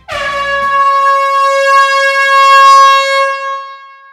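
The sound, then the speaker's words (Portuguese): A single loud air horn blast rings out steadily for about four seconds, a bright sustained tone with strong harmonics and no voices over it. “Então pode soar a buzina que esse episódio já está começando.”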